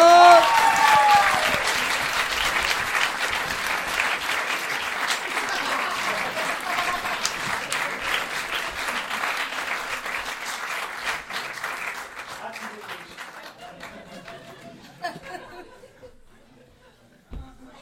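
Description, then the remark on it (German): An audience applauds for a question, clapping steadily in a dense, crackling burst that starts loud and slowly thins out, with a few scattered claps and murmurs lingering at the end. “Also ich bringe dir das mal einen Applaus für die Frage.”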